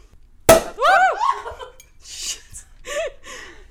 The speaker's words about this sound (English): we have some champagne, which we're going to be popping